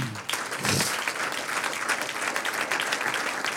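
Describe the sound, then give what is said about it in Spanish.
An audience applauds the Lord during a Spanish-language church sermon, a dense wash of many hands clapping together, holding at a strong, even level throughout with no voices standing out. “Un aplauso al Señor.”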